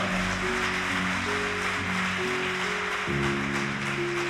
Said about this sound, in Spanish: Buen trabajo, excelente trabajo ustedes. Un aplauso para ellos. Buen trabajo.